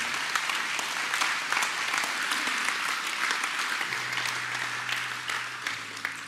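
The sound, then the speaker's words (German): A crowd claps steadily for several seconds, a dense, even wash of applause with no voices breaking through, while a low sustained tone hums underneath. “Gib doch mal einen fetten Applaus für alle, die heute diese mutige Entscheidung getroffen haben.”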